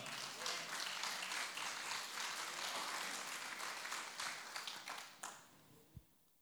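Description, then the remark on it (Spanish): A church audience breaks into sustained applause for the Lord, a dense wash of many hands clapping that holds steady for about five seconds, then thins into a few scattered claps and a low thump. “Contale un aplauso al Señor por porque nosotros tenemos un altar aquí.”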